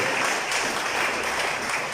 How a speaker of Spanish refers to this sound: ¿Cuántos ha aumentado su fuerza en la oración? Denle fuerte aplauso al Señor si lo cree conmigo.